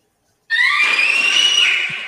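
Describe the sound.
A person lets out a sustained, high-pitched shriek imitating a scream, loud, starting abruptly and holding steady for under two seconds before easing slightly.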